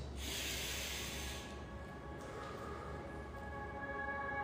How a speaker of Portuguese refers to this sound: então você vai inspirar e respirar mais forte agora. Segura, solta, mais uma vez. Mais uma vez.